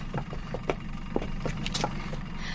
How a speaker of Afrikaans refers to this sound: En ek hoef nie so te skree teen die boot se engines as ek met jou wil praat nie.